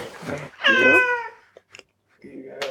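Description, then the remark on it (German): A cat on a sofa gives one clear, drawn-out meow lasting about half a second, on a warm day, with people talking quietly before and after it. “Aber es ist Boah, so ah, warm, dass die Katze nicht ja. aufsteht, um uns zu begrüßen.”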